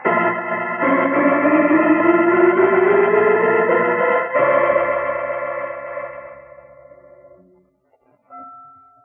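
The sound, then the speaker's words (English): Loud, clanging church bells in a bell tower ring wildly out of rhythm together in a dense, jangling wash with no steady beat. The tones swell and overlap, then slowly fade away, leaving a brief faint ring at the end. “Listen to those bells!”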